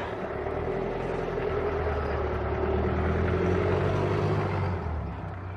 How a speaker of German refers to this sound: Warten wir vielleicht mal eben kurz, lassen wir eben mal das Auto vorbeifahren.